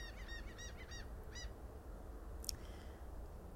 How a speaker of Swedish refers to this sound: Det håller tydligen måsarna med om också.